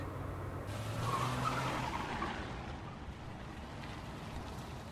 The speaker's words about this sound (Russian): Машина остановилась на обочине, клюнув носом. Раритет, древность.